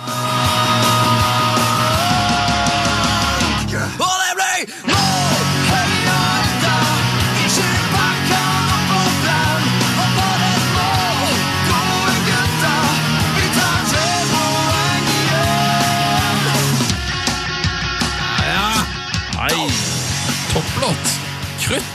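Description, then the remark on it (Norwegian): A loud, full-band football club anthem from Alta, Norway plays continuously with a sung vocal line over steady instruments, cutting out briefly near the start before resuming with the same driving energy. “'Her er Norges beste klubblåt fra perlen i nord'.”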